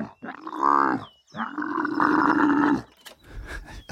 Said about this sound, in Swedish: Ja, det rätta svaret är kamel. Jajamän. Det visar sig att kameler kan låta på det här sättet. Eh, är ni redo för att höra det en gång till? Så här, detta är alltså en kamel.